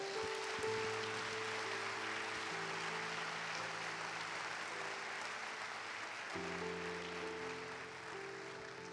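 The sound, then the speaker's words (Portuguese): A church audience applauds the Lord steadily for the whole stretch, a dense, even clatter of many hands, while sustained low keyboard chords hold underneath and change partway through. “Você gostaria de dar um aplauso ao Senhor?”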